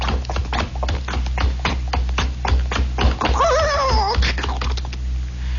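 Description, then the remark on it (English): Steady hoofbeats clop along with a horse-drawn carriage rumbling beneath, then a horse whinnies briefly as the carriage stops in front of lodgings at 221 Baker Street in winter, and the sound settles into quiet. “the sound of a carriage stopping in front of that winter-bound digs at 221 Baker Street.”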